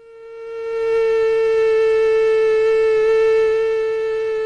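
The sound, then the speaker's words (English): A steady, high-pitched whining buzz of a female Aedes aegypti mosquito's wingbeats at about 400 hertz (400 beats a second), sustained and fairly loud with no talking, swelling slightly as it begins and holding constant throughout. “Have a listen to the female mosquito, and these are Aedes aegypti mosquitoes.”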